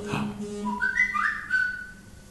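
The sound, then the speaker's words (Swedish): A mobile phone ringtone plays a short, whistle-like melody of clear high tones that step upward and hold, moderately loud over a low steady hum, with no talking. “Vem är det som inte har stängt av sin telefon?”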